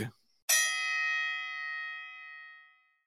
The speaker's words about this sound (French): fais péter le gong.